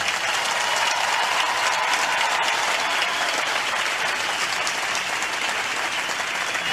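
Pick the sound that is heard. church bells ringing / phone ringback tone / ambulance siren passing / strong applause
strong applause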